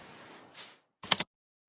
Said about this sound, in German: müssen aber kurz vorher die Kassette wechseln. Ach so. Ja. Klicke die Klack.